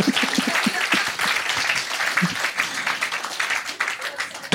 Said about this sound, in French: Alors là, je vous demande d'applaudir, même si vous ne connaissez pas.